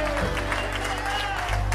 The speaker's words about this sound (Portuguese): Vamos celebrar a Ele, vamos bater palmas a Ele em nome de Jesus.